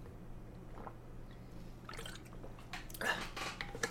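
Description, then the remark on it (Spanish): Quiet liquid sounds, like water being poured or sipped as someone drinks water, with a few soft splashy bursts toward the end over a low steady hum. No one speaks. “Uf, necesitaba agua.”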